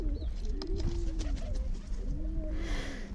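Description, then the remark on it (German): Several pigeons on a paved sidewalk coo in soft, overlapping throaty warbles as they rush at a macaron cookie dropped by one fat pigeon, over a steady outdoor background murmur that ends in a brief burst of hiss. “Die dicke Taube mit dem Macaron verliert ihren Keks, die anderen stürzen sich drauf.”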